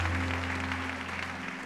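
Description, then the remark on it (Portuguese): An audience applauds the Lord, a dense, steady wash of many hands clapping at an even level throughout, with a low steady hum underneath and no voices. “Se você crê nele, dá um glória a Deus e aplauda o Senhor.”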